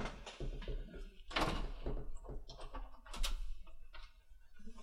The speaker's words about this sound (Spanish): Veo una paloma por ahí. Deja que abra yo ahora la, ventana.